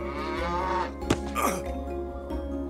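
A cow lets out a long, loud moo with a rich droning tone, broken midway by a sharp thump and a brief scuffle as it kicks Juha away when he sits down to milk it, before the lowing carries on.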